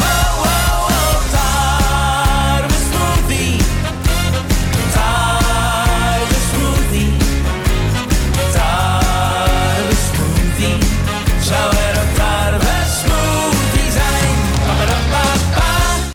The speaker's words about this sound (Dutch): Je hebt ook een eh, nieuwe plaat eh, uitgebracht. Dat is …. Die klinkt zo.